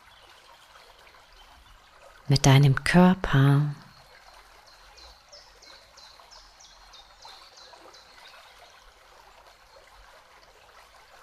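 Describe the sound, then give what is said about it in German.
A soft, steady wash of stream water flowing and gently splashing throughout, with a brief spoken phrase near the start and faint bird chirps. “Dieses sanfte Plätschern. Und du nimmst erst einmal wahr, was dieses Fließen und Plätschern mit dir macht.”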